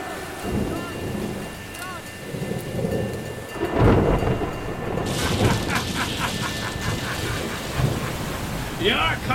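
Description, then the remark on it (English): Heavy rain pours steadily while thunder rumbles and booms, with a loud crack near the middle and a continuous dense hiss of downpour throughout. “Seven for the binding to bring you the storm.”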